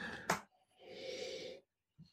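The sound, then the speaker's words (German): A quick sharp snort through the nose, then a longer, steady inhale as someone takes in the aroma of a beer in a glass, followed by a faint soft breath. No one speaks. “Riech nochmal, Jetzt ist dein muffig vom Anfang.”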